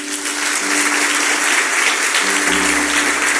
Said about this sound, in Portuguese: Agora dá um glória bem forte. E um aplauso forte.